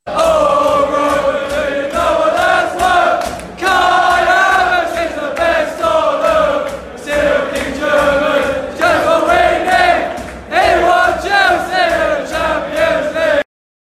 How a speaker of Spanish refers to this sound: pero si aquí dicen Roman, es Roman Abramovich. Entonces, ese es el famoso cántico para Kai Havertz.